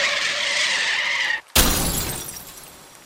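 Car brakes screech on a street in the rain in a loud, sustained high squeal for over a second, then a short silence and a sudden crash with shattering debris that rings out and fades.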